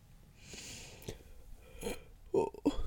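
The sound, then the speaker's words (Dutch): A person yawns, with a long airy intake of breath followed by a few short, throaty voiced sounds near the end, fairly quiet overall. “zo, even gapen.”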